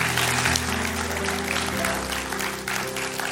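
An audience claps steadily for those who raised their hand and made a decision after a prayer, a dense, continuous patter of applause, with sustained low musical tones humming underneath throughout.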